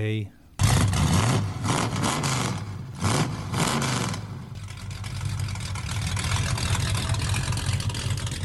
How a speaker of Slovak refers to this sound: Sadnete si do auta, naštartujete, zaradíte rýchlosť a jazda sa môže začať.